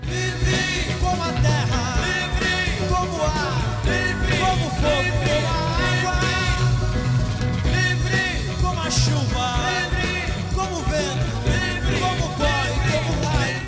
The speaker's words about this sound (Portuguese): Pode procurar aí, a gente vai ouvir uma música agora.